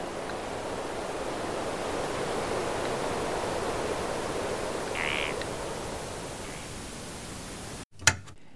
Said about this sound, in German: Äh, Sie haben vielleicht gehört, es gibt so ein das, äh, das Ganze hatte so ein gewisses Rauschen, das war natürlich beabsichtigt